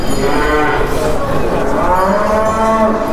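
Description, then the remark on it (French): Montbéliarde dairy cattle mooing in hall 1 of an exhibition: several long, droning, low moos overlapping one another, loud and steady throughout, with a busy murmur of background noise and no clear talking. “Au cœur du hall 1, les Montbéliards sont là et quand on dit Montbéliard, on parle de lait.”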